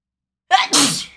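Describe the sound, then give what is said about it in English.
A single loud sneeze: a short sharp intake followed by an explosive burst that trails off quickly, with nothing else around it. “Bless you.”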